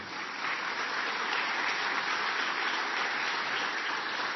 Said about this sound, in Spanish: Un fuerte aplauso por él.